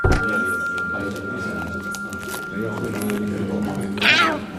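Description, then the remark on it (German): Long John, Figarino's pirate cat, meows repeatedly over a steady, hum-like tonal background, ending with a loud, high, wavering meow. “Figarinos Fahrradladen mit Figarino und seinem Piratenkater Long John.”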